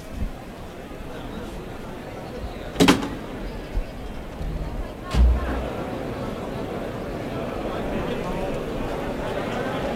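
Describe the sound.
The toril (bull pen) gate of a bullring is opened with two loud clunks a couple of seconds apart, releasing the first bull, a Juan Pedro Domecq bull for Morante de la Puebla, heard over a steady murmur of crowd chatter and voices.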